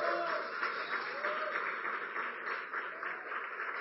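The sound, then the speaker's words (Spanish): A crowd applauds steadily to welcome an invited guest, many hands clapping in a dense, continuous patter that stays fairly even in loudness from start to finish. “Que denle un aplauso.”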